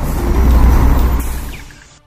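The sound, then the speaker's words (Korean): A large metropolitan intercity bus rumbles loudly, its low engine drone steady before a sharp hiss of air brakes cuts in near the end as the noise fades away. “독립의 비법, 산림과 고독의 사용법을 배우기 위해 광역버스에 몸을 씻습니다.”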